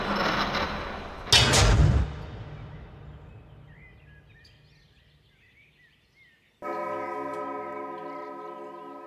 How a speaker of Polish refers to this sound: W tym momencie zegar wybił pierwszą.